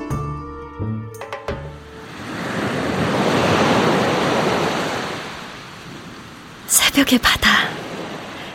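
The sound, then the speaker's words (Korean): A single ocean wave swells in and breaks on the shore at night, a broad rushing wash that rises, peaks, then slowly recedes. A brief voice comes just before it, and a few sharp bursts follow. “시원한 파도가.”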